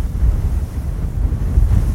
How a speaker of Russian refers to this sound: Закрой на минутку глаза. Море. Сделай глубокий вдох и представь, что вдыхаешь запах моря. Вдыхаешь его соль и солнце.